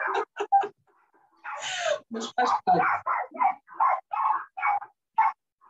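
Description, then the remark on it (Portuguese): Several pet dogs bark outside in a rapid, repeated series of sharp barks that carries on through most of the moment, with a person briefly speaking over them. “E mais uma vez, com os cachorros. lá de fora, que os meus cães seguiram começar a ladrar.”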